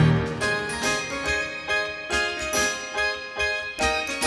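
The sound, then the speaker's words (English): As the basses drop out, a musician plays a bright, bell-like childlike melody on the glockenspiel in a simple, sing-song pattern, with steady repeated notes ringing out clearly over a soft musical backing, no voices present. “Basses drop out, and … plays a childlike melody on the Glockenspiel.”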